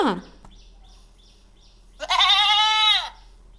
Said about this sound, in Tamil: அடுத்ததாக ஆடு கத்தும் ஆடு கத்தும் ஓசையை கேட்போமா